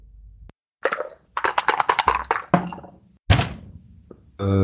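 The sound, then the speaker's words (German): Dice clatter and tumble across a hard tabletop in a quick series of rattling knocks, followed by a second shorter roll and a final settling click, fairly loud with no talking. The dice are rolled in a board game to determine a random event. “Dann würfel.”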